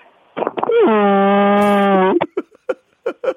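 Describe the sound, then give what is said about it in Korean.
A person imitates a dairy cow's moo with one long, loud, steady low call lasting over a second, followed by a few short breathy sounds or chuckles. “젖소를 한번 해보겠습니다.”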